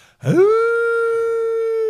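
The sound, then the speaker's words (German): A person imitates a dog's wolf-like howl, as the dog makes when left alone: a single voice swoops upward, then holds one long, steady, mournful tone for almost two seconds, fairly loud, with no talking. “der fängt ja immer an, wie ein Wolf zu heulen, wenn er alleine ist.”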